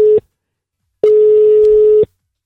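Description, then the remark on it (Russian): A telephone ringback tone heard while placing a call to a guest in America: a steady, single-pitched electronic beep lasting about a second, preceded by the tail of an earlier one, loud and clear with no voices. “Э, мы сейчас ему будем звонить. Э... Дозваниваемся.”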